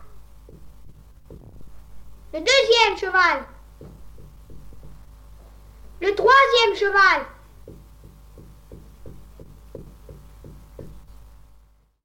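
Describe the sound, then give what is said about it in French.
Muffled knocking from inside a wall, a long steady series of dull thuds about twice per second, a spirit knocking out counts giving the numbers of three winning horses, continuing under two short phrases spoken by a child's voice. “L'esprit s'exécute et frappe successivement le nombre de coups correspondant au numéro des trois chevaux gagnants.”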